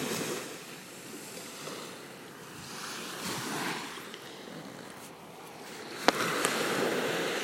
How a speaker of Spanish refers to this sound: Y te voy a pedir que visualices el mar. Escucha las olas, Siente el aire.